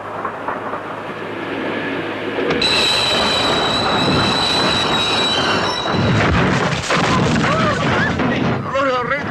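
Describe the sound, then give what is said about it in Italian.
A train rolls loudly along the rails, a steady heavy rumble joined after a couple of seconds by high, sustained metallic wheel squeal; faint voices surface briefly near the end. “Ma lei dove vive, scusi? Qui, in treno.”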